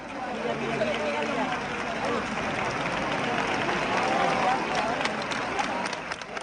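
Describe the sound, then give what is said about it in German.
A large crowd roars and cheers continuously at 3:13 a.m. during a religious procession as a statue of the Virgin, carried on a platform on people's shoulders, emerges from a church, with scattered clapping and shouting voices blending into a dense, loud wall of noise throughout. “Die Menge jubelt, als die auf den Schultern getragene Jungfrau aus der Kirche gleitet und über den Köpfen der Wartenden zu schweben scheint.”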